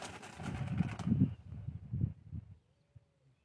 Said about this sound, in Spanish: Y salió un pájaro volando con un ímpetu recién. Como si le tuviera miedo al sorete que estaba por largar después de que escuchó lo que dije.